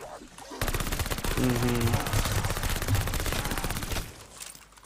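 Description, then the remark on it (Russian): A Sten submachine gun in a video game's zombie mode fires one long, rapid automatic burst lasting about three and a half seconds, loud, with a brief tonal effect partway through before it stops abruptly. “Откуда такая убойная сила у Стена? Он же пистолетными пулями стреляет.”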